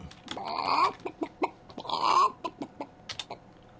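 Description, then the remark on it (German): A chicken clucks in a quick series of short, choppy clucks broken by two longer, drawn-out squawks. The clucks are fairly loud, with no talking. “Hühner, Eier legen.”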